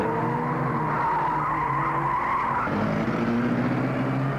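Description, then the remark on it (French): A car brakes abruptly, unbalancing it, and its tires skid with a loud, sustained screech lasting several seconds, the squeal's pitch dropping partway through over a low engine rumble. No one speaks. “freiner d'un coup sec. Ça fait déséquilibrer la voiture et donne encore plus mal au corps à la pauvre, à la pauvre mère.”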